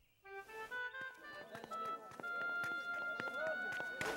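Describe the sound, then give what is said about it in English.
Donkey hooves clop across the hard floor of a temple in a string of sharp, uneven knocks, fairly loud, with tonal ringing and voices murmuring in the background. “You can bring the donkey in the temple with you.”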